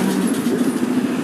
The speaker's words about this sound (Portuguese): E antes que vocês perguntem que barulho é esse, eu estou indo pra casa, acabei de sair do meu serviço, eu estou no ônibus.